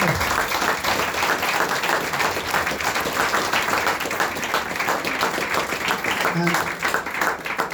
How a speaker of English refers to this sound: first of all, we want to thank everybody who played out the front there. Thank you very much. Give me a round of applause.